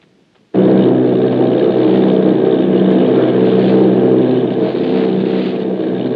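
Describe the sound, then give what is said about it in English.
After a brief moment of quiet, the heavy drone of an army bombing plane's engines cuts in abruptly and holds steady. The plane is flying off Bayonne, New Jersey, with a formation of eight bombers. The sound is a loud, dense, continuous roar with no voices. “Army bombing plane B-843 off Bayonne, New Jersey.”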